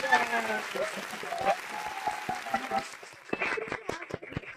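A burst of audience applause: many hands clapping in a dense, crackling patter that holds steady for a few seconds, with faint tonal sounds mixed in at the start.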